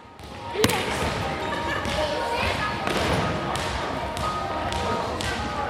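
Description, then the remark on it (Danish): Basketballs thud on a floor in an irregular, overlapping patter amid busy, echoing noise during a nanobasket (mini-basketball) practice for small children, with children's voices chattering throughout. “spiller vi nanobasket, og i dag har vi så lavet boldbanen”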